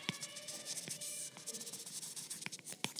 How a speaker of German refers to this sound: hört da wirklich ein, ein, ein feines Rauschen ähm, wie als ob man auf Papier schreiben würde.